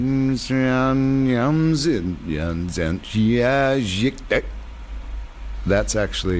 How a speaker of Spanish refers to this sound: que es de hecho la pista de voz reproducida al revés. Lo puedes escuchar al final de esta canción.